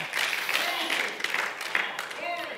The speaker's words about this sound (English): Can I tell you, we ought to give him a hand clap of praise right there that he's still willing to let us be sons and daughters of God.